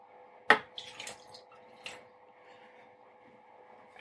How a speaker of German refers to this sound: So, ein ganzes Glas Milch schütten wir jetzt in den Thermomix.